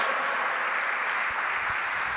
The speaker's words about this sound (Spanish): Dale un aplauso al Señor, dale la gloria a Él.